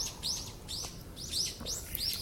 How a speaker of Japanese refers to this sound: なんか鳥さんも喜んでおります